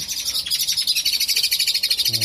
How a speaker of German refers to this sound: Wow. Habt ihr das gehört? Hier gibt's voll die geilen Vögel.